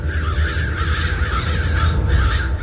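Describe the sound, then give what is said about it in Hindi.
Several crows caw repeatedly in harsh, overlapping calls over a steady low rumble, fairly loud and continuous, with no one speaking; the crows are over a sugarcane field. “वही गन्ने का खेत था दूर दूर तक फैला हुआ वही कौवे थे जिन्हें अभी अभी सपने में उसने देखा था”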